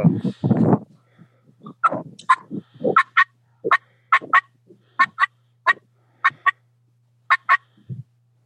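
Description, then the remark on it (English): A two-note turkey hen call being demonstrated, sharp yelping notes paired and repeated back to back about eight times, loud, after a brief burst of low rumbling noise at the start. “But if you really break it down and dissect it, it's just a two note call that's just being put together back to back to back.”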